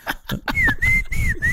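A person whistles by mouth in a neighborhood-style signal pattern: a few quick chirps, then a sustained tone dipping and rising in repeated swoops, loud over a noisy background.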